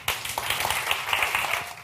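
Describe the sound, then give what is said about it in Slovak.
Audience applause welcoming a presenter: a dense, steady patter of many hands clapping at once, bright and sustained for about two seconds with no voices over it. “príde a predstaví nám výsledky najnovšieho prieskumu počúvanosti podcastov, takže privítame ju opäť potleskom.”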